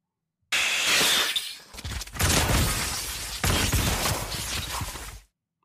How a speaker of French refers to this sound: Alors vous êtes, pas si loin. C'est une, une attaque explosive d'un ennemi dans le jeu.